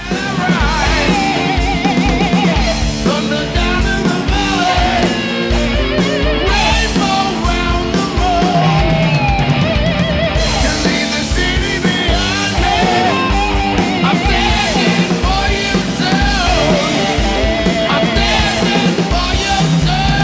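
A loud rock song from a tribute album plays steadily for the whole stretch, a full band with heavy guitars and pounding drums filling the mix at a constant, dense level.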